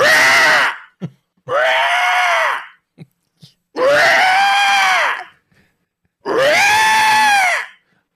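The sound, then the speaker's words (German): A voice imitates the loud screech of a parrot, one of two kept in a cage in the middle of a dome beside a restaurant, in four long, harsh, strained cries with brief gaps between them, rising and falling in pitch, with a couple of short clicks or breaths in between. “Die haben einen Käfig in der Mitte und in diesem Käfig sind zwei Papageien.”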